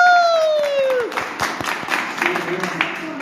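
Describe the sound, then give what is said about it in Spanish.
A sliding, falling whoop gives way to a couple of seconds of brisk, uneven clapping from a small group applauding themselves, with a brief vocal sound rising over the claps near the end. “El caso es que un aplauso para nosotros. Aplaudamos.”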